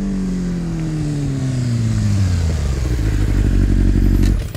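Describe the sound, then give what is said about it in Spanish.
A loud, close motorcycle engine drones steadily as it approaches on a dark street, then its pitch drops as the bike brakes to a rough, rumbling idle. No one speaks. “Escuchamos una moto, pero no veíamos la moto.”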